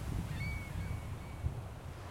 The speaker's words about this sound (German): Meer, Wellen, gebt mir das Meer. Unendlichkeit, herrliches Meer. In dir will ich ertrinken.